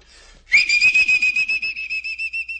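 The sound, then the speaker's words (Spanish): A loud, shrill mule-driver's whistle blasts, starting sharply and holding a piercing high pitch with a rapid warbling pulse for about two seconds, whistled into a person's ears, with no talking. “No, su única medicina es pegarle un chiflido de arriero en las orejas de rato en rato.”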